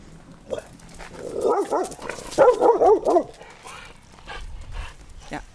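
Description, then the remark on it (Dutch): A dog barks at joggers in a quick, excited burst of sharp, high yapping barks, loud, then falls quiet with only faint background noise afterward. “heeft het niet zo op met joggers.”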